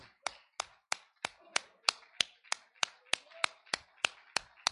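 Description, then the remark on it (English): An audience claps hands in praise of Jesus in steady unison, about fifteen sharp, loud claps at an even rhythm of roughly three per second, with a faint murmur of voices between beats. “Let's open up with a great hand clap of praise for Jesus today.”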